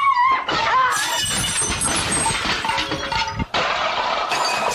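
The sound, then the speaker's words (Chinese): Loud, chaotic smashing as objects break and glass shatters, with a rapid series of crashes and bright tinkling shards, a brief gap, then another burst of breaking. “求求你们不要再摔了，不要摔了！”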